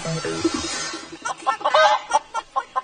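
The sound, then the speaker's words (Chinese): A chicken clucks in a quick series of short, choppy bursts, mid-pitched and fairly loud, with a steady pulsing rhythm after a brief rustly start. “No，那是鸡的叫声。”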